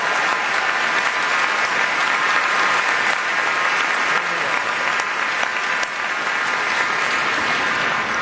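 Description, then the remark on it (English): A crowd claps steadily for several seconds for young people at a ceremony, a dense, even wash of many hands with no pauses, holding at a constant loud level throughout. “Let's give these young folks another round of applause.”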